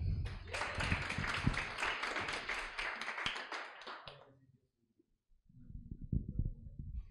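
A crowd bursts into steady, dense applause for about four seconds, then it fades to silence before a man's voice begins speaking.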